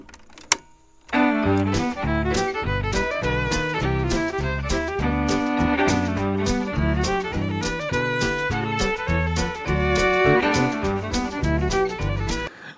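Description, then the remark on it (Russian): Fast Texan-style blues fiddle music kicks in after a brief quiet moment, loud and busy, with a driving steady beat and thumping low notes under bright, sustained melodic lines. “в так называемый вот этот Texan-style fiddle. Это блюз на скрипке сыгранный, быстрый такой.”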